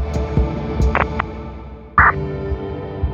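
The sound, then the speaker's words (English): A car engine rumbles low and steady at moderate volume as the car approaches an abandoned house, its throbbing drone punctuated by a few soft knocks and a brief brighter clatter partway through. No one speaks. “And I swear, it was right when I reached that conclusion that I heard the car approaching the abandoned house.”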